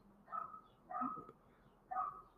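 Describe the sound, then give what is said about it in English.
A dog barks three times at an even pace, each bark short and sharp, against a quiet, faintly noisy background. “Maybe that dog that's barking in the background.”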